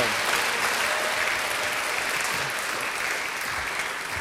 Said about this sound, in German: Wer weiß schon, ob er bestanden hat? Yes, gebt den Applaus.